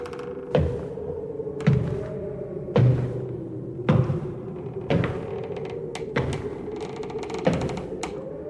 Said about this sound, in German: Es begann in einem kleinen Dorf im US-Bundesstaat New York. Es begann mit den Schwestern Kate, Maggie und Leah Fox und mit merkwürdigen Klopfgeräuschen.